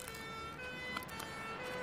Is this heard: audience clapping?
no